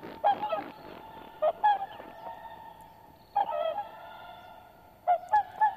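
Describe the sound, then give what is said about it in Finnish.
Whooper swans call in loud, bugling honks, repeated in short clusters of two or three with brief pauses between, over a faint outdoor background and no voices. “Vaikka laulujoutsen on Suomen kansallislintu, alkaa joutsenten myyttinen luonne unohtua.”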